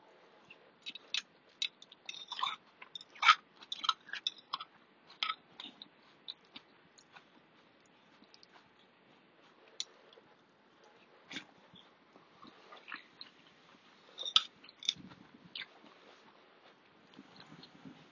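Close, crunchy chewing with irregular bites and smacking clicks, busiest in the first few seconds and then continuing more sparsely over a quiet background, with no talking.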